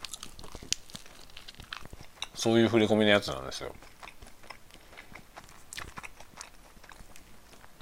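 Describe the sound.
Someone chews bread while speaking during a lunch-break chat, with soft crunchy bites and wet mouth clicks scattered steadily under and between the talk across the whole clip.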